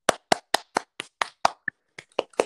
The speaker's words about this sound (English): Audience, let's give her a nice warm applause.